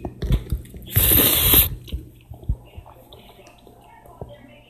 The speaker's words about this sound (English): Gotta get that slurp in there.